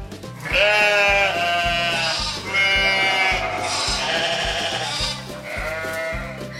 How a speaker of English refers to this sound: They followed the tracks, but they found the baby sheep and his mom.